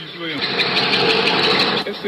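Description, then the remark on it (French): Rotor blades of a helicopter that has just landed inside the grounds of Réau prison, filmed by a detainee from his cell, beat in a rapid, steady rhythm over a loud, continuous mechanical roar, with faint voices showing through briefly underneath. “On entend les pales d'un hélicoptère qui vient de se poser dans l'enceinte de l'établissement.”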